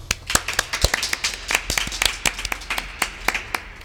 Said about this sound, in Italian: un applauso.